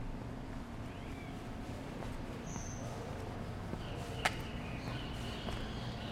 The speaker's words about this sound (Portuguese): Entramos no Viçosa. Eu já tô ouvindo barulho de suriri, ó.